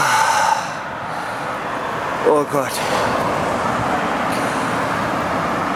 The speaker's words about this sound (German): Steige ich jetzt mal schön in den Bus rein.